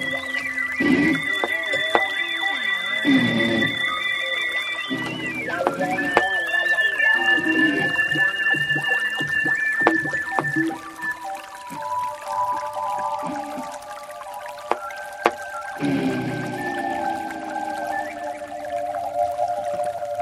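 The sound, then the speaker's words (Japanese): A steady wash of flowing river water runs throughout, layered under sustained ringing bell-like tones and occasional sharp knocks, forming a continuous, moderately loud ambient mix. It is a field-recording piece made by adding small bells, a wooden fish block (mokugyo) and taiko drums to river sounds. “川の音に鈴、木魚、太鼓などを加えて作りました。”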